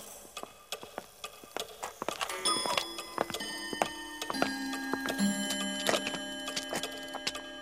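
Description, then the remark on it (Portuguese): Many clocks tick at once in the clock wing of a building, in overlapping, uneven rhythms, sharp clicks crowding together, with sustained chiming tones ringing out partway through. No one speaks. “Continuaram, passaram também pela ala dos relógios”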